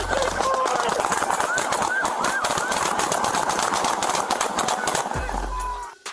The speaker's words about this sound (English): And then, eight officers fire their weapons as many as 90 times.